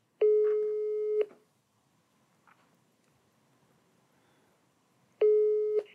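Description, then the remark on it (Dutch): A telephone ringback tone sounds while a call to a trade union connects: a steady electronic beep lasting about a second, then a long silent gap before the next ring. Two rings are heard, clear. “we gaan gewoon uh, de vakbond zelf bellen”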